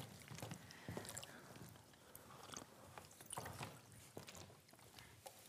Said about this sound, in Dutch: Ik zal eerst eens even water inschenken. Ja, hier staat ook nog een glas hoor.